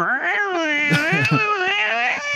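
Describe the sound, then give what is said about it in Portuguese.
A person vocally imitates an angry cat's yowling: one loud, drawn-out howl lasting a couple of seconds, its pitch wavering and bending with a rough, strained edge. “o gato com um olho vermelho, assim, fazendo aqueles barulhos de gato quando ele tá muito puto.”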